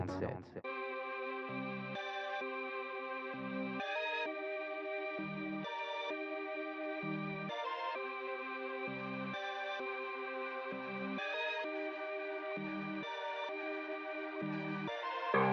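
A rap track plays loud and steady on Radio Campus 47, with sustained layered synths over a deep bass hit that returns roughly every two seconds, filling the whole stretch without pause.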